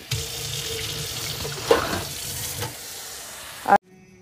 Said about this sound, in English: oh, I gotta water my plant.